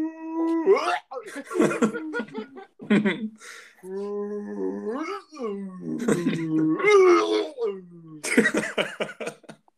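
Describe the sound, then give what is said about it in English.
A voice imitates a retching whale with long, warbling, gurgling moans broken by harsh gagging coughs, loud, repeated over several seconds with no other sounds. “so imagine a retching whale”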